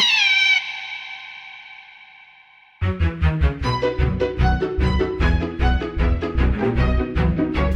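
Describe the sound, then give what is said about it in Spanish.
A single drawn-out cat meow, heavily processed with echo, rings out and slowly fades before lively music bursts in and carries on to the end. “Mi gatito no es raro. Es muy listo porque sabe idiomas. Mm, pues sí que es listo. Miau, miau.”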